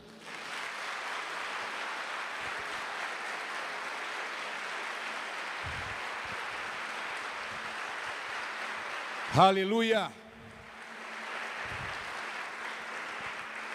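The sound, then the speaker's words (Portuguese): An audience claps hands in a loud, dense, sustained wave of applause lasting many seconds, applauding the name of Jesus; a single voice briefly shouts over it near the end before the clapping resumes. “Prepara a sua mão aí, você vai bater palma bem forte.”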